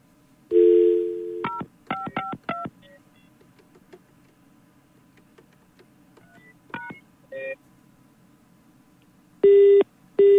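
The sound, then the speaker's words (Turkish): A phone line hums as a steady tone sounds, followed by a quick run of touch-tone dialing beeps as someone calls a number again, a few more keypresses later, then loud repeated tones near the end. Nobody speaks. “Bir daha arayayım ama.”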